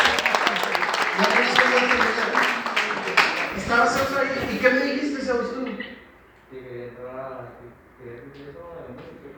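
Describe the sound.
A crowd breaks into loud, dense applause with voices calling out over it, then the clapping dies away after several seconds, leaving people talking.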